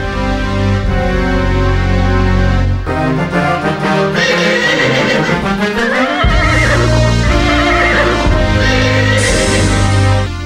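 An Arabian horse neighs loudly and repeatedly, its shrill whinnies rising and falling over a dense, continuous bed of dramatic music that fills the whole stretch.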